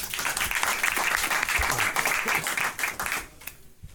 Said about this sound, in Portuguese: Palmas para ele.